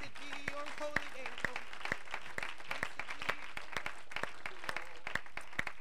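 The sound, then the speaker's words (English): An audience claps together in a steady, sustained round of applause as a hand clap of praise to the Lord, many sharp hand claps overlapping at a lively pace, with faint voices underneath. “Let's give the Lord a hand clap of praise tonight.”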